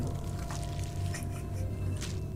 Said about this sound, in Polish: I słyszycie, może ciężko to nazwać krokami, ale można to nazwać właśnie takim laskaniem w rytmice kroków. Coraz głośniej.